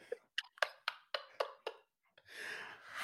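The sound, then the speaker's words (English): A person imitates the noise a giraffe makes: seven quick, evenly spaced mouth clicks or pops, a brief pause, then a long breathy, airy exhale that swells louder toward the end. “like people's faces when you ask what noise does a giraffe make.”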